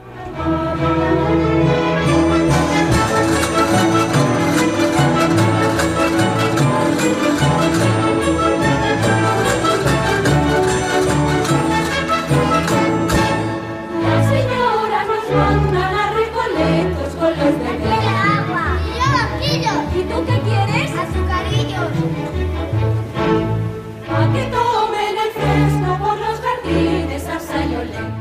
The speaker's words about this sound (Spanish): vamos a escuchar un fragmento de Agua, Azucarillos y Aguardiente en donde los niños sois los protagonistas, porque es el coro de niños y niñeras